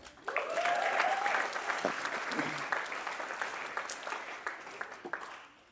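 A crowd breaks into steady applause, dense overlapping claps that hold for several seconds before thinning out, with a few voices faintly audible underneath.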